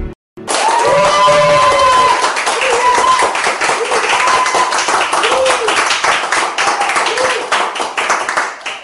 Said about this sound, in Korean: 야 오랜만에 우리 여성분들의 환호가 들리니까 막 기운이 납니다.